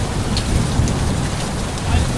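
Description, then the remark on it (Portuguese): Steady, heavy rain hisses continuously onto slippery sidewalks, with a deep low rumble of thunder rolling underneath throughout. No one speaks. “continuavam andando pelas calçadas escorregadias, debaixo de chuva após saírem do local onde ela trabalhava.”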